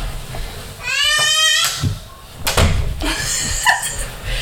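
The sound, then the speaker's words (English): A door swings shut: a drawn-out, squeaky hinge creak followed by a solid thud as it closes, then some faint rattling and shuffling afterward, with no one talking. “I'm gonna close the door. So you guys are gonna hear that”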